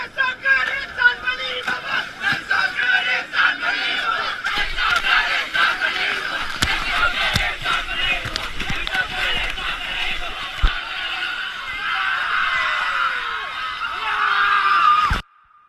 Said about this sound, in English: until finally, on day 21, they reach the river's mouth on the Indian Ocean, and everyone sprints over the sand and into the sea while laughing and crying and congratulating each other, like in this audio from 2016.